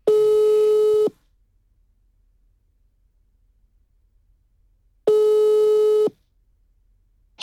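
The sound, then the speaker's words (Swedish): A telephone ringback tone plays during an outgoing call: steady one-second tones separated by about four seconds of silence, clear, with a third tone just starting at the end. “Så jag tänker att vi ringer upp Anna och så får vi höra hennes egna hudresa.”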